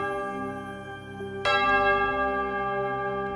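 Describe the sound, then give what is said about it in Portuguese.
A small sacristy bell is struck once, a sharp bright strike that rings on with sustained shimmering overtones, following a lingering earlier ring, clear with no talking. “Toco o sino sacristão pela Caroline.”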